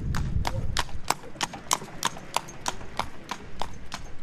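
Horses' hooves clip-clop on a road at Castro Verde in a steady, even rhythm, about thirteen sharp, bright knocks in four seconds, over a low rumbling background.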